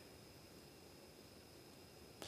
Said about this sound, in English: you guys can hear there's a lot of low level hum, there's low level kind of whine in the room from electronics